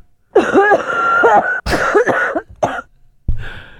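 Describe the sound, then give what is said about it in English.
A harsh coughing fit: several loud, raspy coughs in quick succession with strained, wheezy breaths between them, ending in a final throaty hack. “I miss those coughing fits.”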